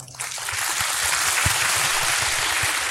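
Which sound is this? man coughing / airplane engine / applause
applause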